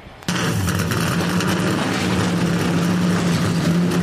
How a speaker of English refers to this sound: given the command to fire the engines.